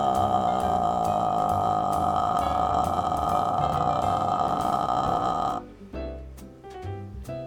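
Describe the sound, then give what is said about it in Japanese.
A loud, amplified raw buzz of a person's own vocal folds alone, a sound but not a voice, drones steadily for about five seconds, then breaks into rough, crackling glottal pulses. No words are spoken. “これが声帯そのものの音です音ではあるけれども声とは言えない代物ですよねはいもちろん私の声帯の音ですよ”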